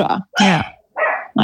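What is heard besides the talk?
dog barking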